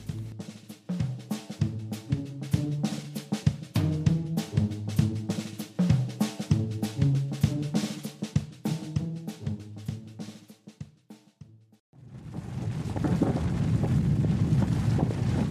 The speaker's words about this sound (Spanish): este sonido nos recuerda la impresionante noticia que hemos presenciado estas semanas, la erupción del volcán en La Palma.